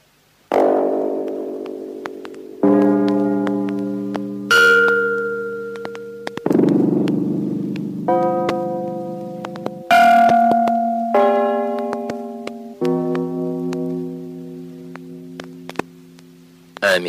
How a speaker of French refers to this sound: un fil d'acier des plus ordinaires. Il a à peu près 20 cm de long et moins d'un millimètre de diamètre. Pas grand-chose non plus. Mettons-le devant un lecteur électronique et nous obtiendrons, suivant la longueur utilisée, toute une gamme de cloches.